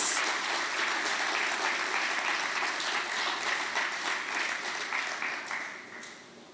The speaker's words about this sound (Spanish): Un aplauso para, para ellos.